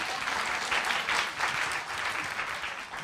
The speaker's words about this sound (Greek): Δώσε ένα χειροκρότημα. Ε, έχει σημασία.